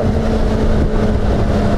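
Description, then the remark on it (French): A six-cylinder BMW touring motorcycle engine drones steadily as the rider shifts gears with the quickshifter, a constant low rumble with a humming tone and some wind rush, and no clear gear change stands out. “Là, le shifter, on aurait pu sûrement avoir mieux, surtout qu'un 6 cylindres, c'est quand même connu pour une certaine onctuosité visiblement, BMW n'a pas travaillé sur ce point-là”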